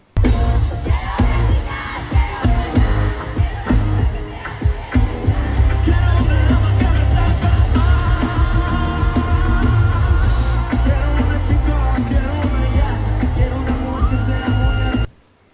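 A raw, heavy-metal-style scream from a singer tears through a loud live concert of his, sustained over pounding music and a roaring crowd for about fifteen seconds before cutting off abruptly.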